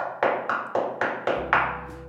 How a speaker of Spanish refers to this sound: Ricitos de Oro se acercó a la puerta y tocó.